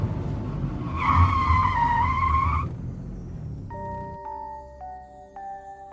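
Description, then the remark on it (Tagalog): A car's tires screech loudly for about a second and a half over a low engine rumble as it skids to a sudden halt while passing a church in Marikina, followed by the idling engine and a few steady electronic tones. “pero biglang huminto yung kotse.”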